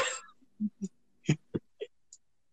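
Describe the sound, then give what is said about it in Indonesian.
A sleeping person snores in a handful of short, low snorting bursts at uneven intervals, fairly quiet, with no talking over them. “Ada suara ngorok kok baru tadi.”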